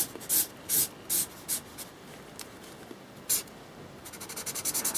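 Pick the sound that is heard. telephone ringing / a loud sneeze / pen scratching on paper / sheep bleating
pen scratching on paper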